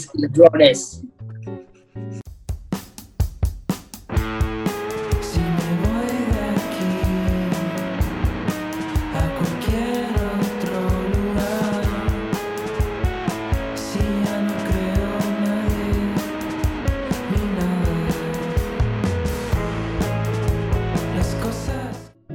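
A contemporary band's song plays loudly and continuously: a few sparse, punchy hits open it, then the full band kicks in with a steady driving beat and a sung melody.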